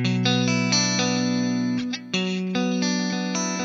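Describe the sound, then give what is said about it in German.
An electric guitar modeled as a twelve-string Rickenbacker, with a shimmering, doubled character, strums sustained chords, heavily processed with chorus and slight distortion, with a brief gap near the middle before the chords resume. “Klingt nicht sehr zwölfseitig.”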